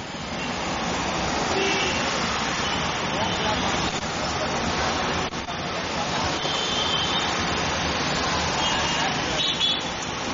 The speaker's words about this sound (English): Here's more traffic. amazing driver. Wonderful time.